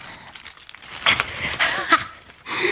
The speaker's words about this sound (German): Und jetzt ganz vorsichtig die Zeitung zurückziehen